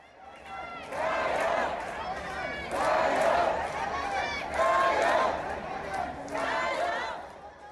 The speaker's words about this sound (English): What you just heard are the sounds of crowds outside the courthouse in Hong Kong cheering for the activists.